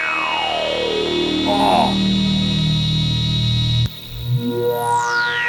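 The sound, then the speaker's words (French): A loud, buzzy Oberheim analog synthesizer drone, based on two SEM engines, with a resonant filter sweeping steadily downward, then a sudden cut and a bright rising sweep climbing back up, heard alone with no talking. “Et les filtres. Voilà, le filtre d'Oberheim, c'est quand même quelque chose, quoi.”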